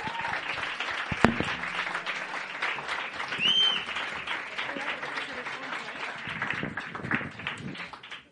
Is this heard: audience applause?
yes